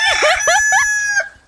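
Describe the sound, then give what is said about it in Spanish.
A rooster crows once, a loud, strained call broken into several rising and falling bursts with a bright, buzzy tone, ending abruptly. No voices accompany it. “Ese es como un gallo.”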